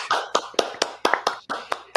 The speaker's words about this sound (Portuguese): Gente, uma salva de palmas pro meu colega de podcast.